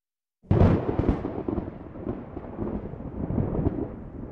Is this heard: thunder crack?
yes